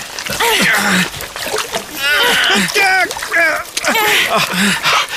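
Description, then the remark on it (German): Steady splashing of feet wading through rising tidal water that already reaches almost to the knees, churning continuously while several excited voices, including a child's, call out over the noise. “Das Wasser steigt immer mehr und reicht uns schon fast bis zu den Knien.”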